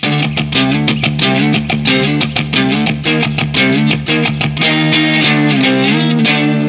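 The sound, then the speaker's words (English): A loud, heavily distorted electric guitar plays a simple Phrygian-style riff, with quick repeated chugging notes in a steady driving rhythm and no voices. “which is just a very mm-hmm. simple like Phrygian type uh, um, riff.”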